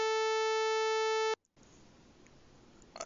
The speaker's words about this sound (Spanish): No está muteado, tienes que ponerle un pip larguísimo a toda esa oración así, pip.